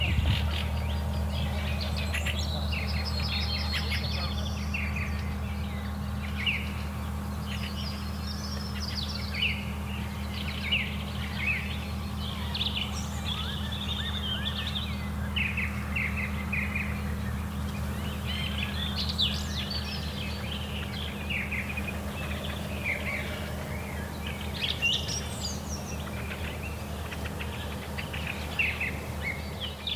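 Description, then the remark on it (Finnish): Many birds sing and chirp together in a busy dawn chorus over flooded fields on the morning of 2 May 2021, with the sky orange above the forest horizon; bright overlapping calls and trills layered over a steady low hum, with no one speaking. “Linnunlaulujen aamu”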